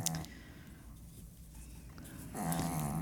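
Soft, raspy snoring with two drawn-out breaths, one at the start and a louder, rumbling one near the end, separated by a quiet pause. No one speaks.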